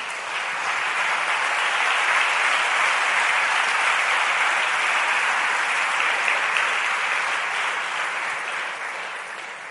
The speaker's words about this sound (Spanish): Quiero que le dé un aplauso fuerte al Señor.